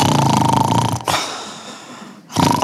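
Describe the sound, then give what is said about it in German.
A voice imitates snoring: a rasping, buzzy inhale, then a long airy breath out, then the rasp starts again. It's loud, with no words spoken. “Zwei Jahre später höre ich wieder das Schnarchen.”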